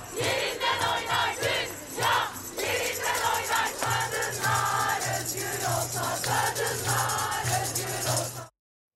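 A large crowd shouts and chants together at a women's night march in Taksim, Istanbul, where the names of women killed in 2021 were read, voices rising in loud, rhythmic bursts over a steady low rumble, with no single speaker standing out.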